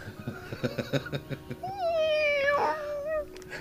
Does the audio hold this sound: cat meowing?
yes